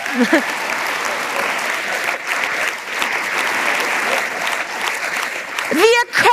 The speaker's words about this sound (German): ihr dürft ruhig klatschen, also tut euch keinen Zwang an, vielen Dank.